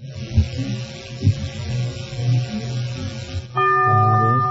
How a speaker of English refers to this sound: Ah, the bell is tolled.